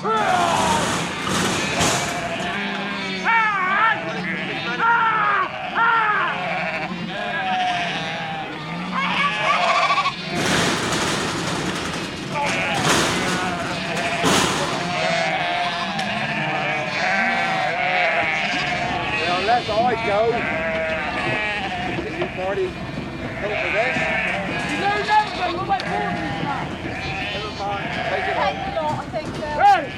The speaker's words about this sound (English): John Levack Drever recorded this herd of woolly bleeders being rounded up for a trim.